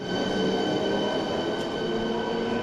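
A train rolls steadily through a railway station in Prague, where trains arrive every five minutes at rush hour; its loud, continuous rumble is layered with whining tones and a faint metallic squeal, without any voices.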